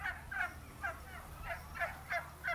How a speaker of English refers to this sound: Once we grabbed our apple picking buckets, we headed toward the orchard, only to pass by a large barn full of turkeys. So, turkeys don't smell very good. According to its website, Lee Turkey Farm raises 3,000 turkeys each year.